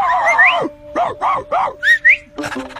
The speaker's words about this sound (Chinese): 罗莉，你还会吹口哨呢？ 巴布，我不会。 那是谁？